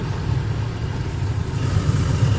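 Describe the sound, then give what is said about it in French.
A vintage car's engine rumbles steadily as the car pulls away slowly for a run of a few hundred metres, a low continuous drone that swells slightly with no abrupt revving and no voices. “Le démarrage est très progressif.”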